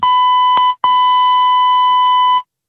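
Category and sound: signal or alarm, electronic beep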